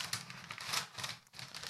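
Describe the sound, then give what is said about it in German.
Continuous crinkling and ripping of gift wrapping paper as a present is torn open, with bursts of crackly rustling that swell and fade over a couple of seconds. There is one brief pause near the end and no voices. “Ja, jetzt hast du es eingerissen. Jetzt kannst du so komplett reißen.”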